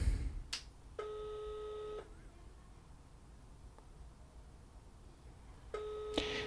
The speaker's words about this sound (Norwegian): Nå ringer jeg.